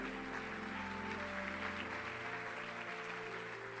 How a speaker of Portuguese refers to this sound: pode aplaudir o Senhor.